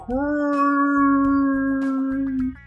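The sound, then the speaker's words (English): A voice imitates a whale song with one long, steady, moaning note held for over two seconds, loud, with no other talking. “What's a really big sea mammal that makes a sort of song?”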